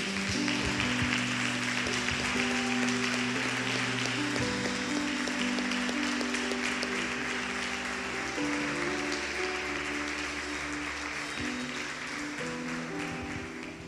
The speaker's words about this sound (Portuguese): Sabe, se você crê, dá até uma salva de palmas para Jesus, que eu creio.